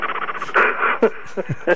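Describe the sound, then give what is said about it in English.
A voice imitates a snake: rapid throaty pulses, then a brief breathy hiss, followed by a few short squeaky vocal yelps. “Leave it to you to do a snake sound.”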